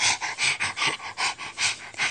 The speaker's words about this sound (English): sniff, sniff went Floppy.